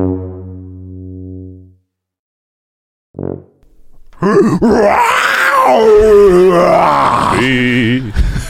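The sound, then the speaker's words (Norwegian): A person imitates a lion's roar: a low hum and a brief grunt, then a loud, rough, drawn-out vocal roar of about four seconds that wavers in pitch before cutting off. “Det var for å vekke de som har sovna på T-banen, er det ikke eh, Dette her var min eh, løve, løvebrøl. Mitt løvebrøl.”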